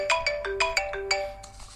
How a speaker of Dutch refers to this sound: Eh, oh, wacht, ik moet even een telefoontje opnemen. Moment.